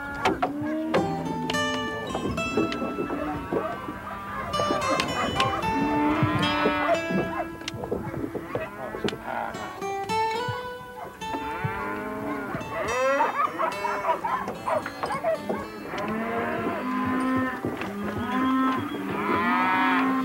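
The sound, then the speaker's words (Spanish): A herd of cattle on a cattle-raising ranch moos continuously, many overlapping bellows rising and falling at varied pitches, some loud, others softer, with no pause across the whole stretch, in a humid, cold setting of mountains, forests and marshes. “El rubro principal aquí es la crianza de vacunos, más apropiados que las ovejas en este ambiente húmedo y frío, dominado por montañas, bosques y pantanos.”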